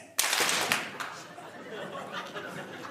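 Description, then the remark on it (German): A burst of live audience applause, given as a vote for a quail egg answer, starts abruptly, dense and loud for a moment, then thins into scattered claps with murmuring and a few chuckles from the crowd. “Wir, wir möchten jetzt euren Klatscher hören”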